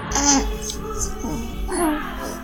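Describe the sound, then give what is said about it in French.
A baby babbles in short, high, singsong bursts of vocal sounds, clear, with a steady low hum underneath and no adult talking. “Un bébé, ça ne fout pas grand-chose.”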